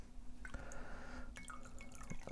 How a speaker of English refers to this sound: It's pouring some more coffee there. Um, this is a lovely coffee, the one from Sambewe Ebi. Uh, turns out I didn't know I liked a Tanzanian coffee, a Tanzanian coffee.